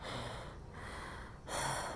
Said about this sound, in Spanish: respirando así como que fuerte, porque antes de empezar el podcast me hice creo que era, me puse en un tubo y hice, y me hice para arriba con las manos desde ese tubo.